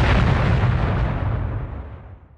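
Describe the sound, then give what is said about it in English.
A deep, rumbling explosion booms at full strength from the start, its broad low-heavy roar slowly decaying over a couple of seconds into a fading rumble. No voices are present. “But now is not the time to discuss Explosion this. goes off in the back.”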